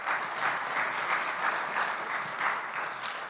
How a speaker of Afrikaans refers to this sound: So ag ehm, gee vir hom ook 'n lekker hande klap toe. Dankie.